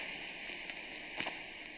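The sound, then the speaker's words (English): A steady, hissing rush of flowing river water runs continuously and fairly quietly, with a couple of brief faint splashes or clicks near the end and no voices. “That's the sound of the water.”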